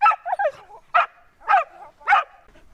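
hunting dog barking

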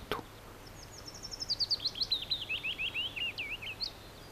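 willow warbler song

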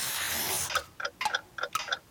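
ticking clocks

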